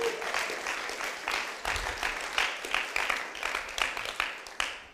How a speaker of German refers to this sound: übrigens Applaus für die Exegese. Come on.